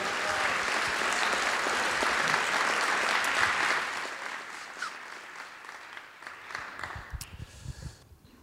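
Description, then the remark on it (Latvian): An audience applauds the Lord with dense, sustained clapping for about four seconds, then the applause thins into scattered, fading claps. “Jā, mēs varam dot aplaustam kungam!”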